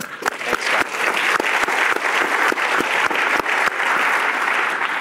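An audience applauds steadily for several seconds, a dense wash of clapping with a few sharper individual claps standing out, loud and sustained with no talking.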